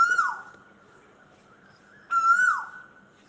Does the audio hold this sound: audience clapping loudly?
no